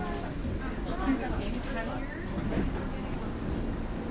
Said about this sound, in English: You're on the R, 4th Avenue local train. This train's next few stops will be Prospect Avenue. Union Street, 9th Street, 25th Street, 36th Street.